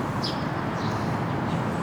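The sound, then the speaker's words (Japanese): A few faint bird chirps ring out outdoors, recorded on a battery-powered field recorder. Their calls trail off with a natural reverb over a steady, rumbling wash of wind noise. “あでもあの鳥のリバーブ的なあの、うん、鳴き声のリバーブがいいですね。”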